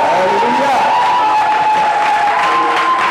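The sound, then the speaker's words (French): An audience applauds and cheers to acclaim the Virgin Mary in a dense, steady wash of clapping, with voices calling out and a sustained high tone running through the noise for about three seconds. “Est-ce qu'on peut acclamer la Vierge Marie”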